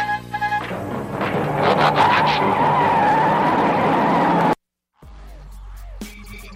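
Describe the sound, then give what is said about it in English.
Loud tires squealing as stunt cars, the Stunticons, skid hard in stunt driving, a sustained screech with engine roar beneath, cutting off abruptly into a brief silence before more mechanical clanks and whirs. “They're stunt cars.”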